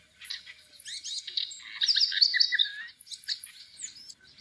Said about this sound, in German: Oh nein, Hanna, das ist kein Töpfervogel, das ist ein Zaunkönig.